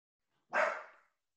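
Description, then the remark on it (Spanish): A single sharp dog bark, close and loud, with an abrupt onset and a short fading tail, standing alone against silence. “Por ahí a mi perro, solo quiero hacer esta interrupción porque este podcast está grabado en el estudio y casa de mi perro Ghost, que ustedes lo conocen porque lo han visto en redes sociales.”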